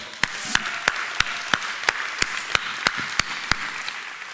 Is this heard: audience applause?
yes